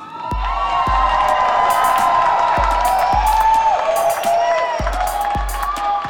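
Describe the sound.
A loud, dense audience at a competition's main stage, with lights, music and fog machines, cheers and whoops continuously, high excited voices layered over one another, punctuated by regular heavy thumping beats underneath.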